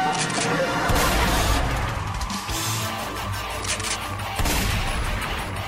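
A loud, dense volley of gunshots, with sharp cracks firing in rapid, irregular bursts over a constant noisy roar, and voices mixed in beneath the shooting.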